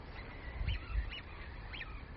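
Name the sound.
birds chirping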